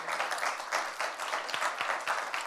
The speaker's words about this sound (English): But can we just give God a, a clap just to give him praise for what he's done this year?